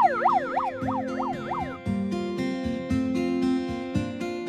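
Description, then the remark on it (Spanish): A community early warning alarm system siren, set off from the local radio to alert the population, sounds with fast, repeated rising-and-falling wails at first, then shifts into loud, steady tones that pulse in an even rhythm, with no voices. “Llegamos a la radio, prendemos el megáfono y es, entonces tocamos el sistema de alarma.”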